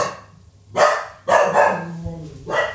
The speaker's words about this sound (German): Oha, Nori bellt hier gerade maximal irgendwen an. Er ist so eine Bestie. Nori! Was los?